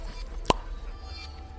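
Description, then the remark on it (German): A single sharp pop as a round, slightly moldy cork is pulled from a glass jar, standing out clearly against a quiet, steady background hum, with no voices. “Er greift in einen, in einen Glastopf, auf dem vorher ein wunderschöner, runder, leicht schimmeliger Korken war.”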